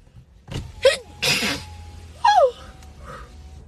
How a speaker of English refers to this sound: sneeze it out.